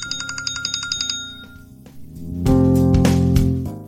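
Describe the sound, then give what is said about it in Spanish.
An iPhone alarm tone called Presto plays alone: a quick run of bright, repeating electronic chimes in a steady rhythm, followed by a louder, fuller synth section with sustained notes and accents. “Presto se llama este siguiente. Seleccionado. Presto.”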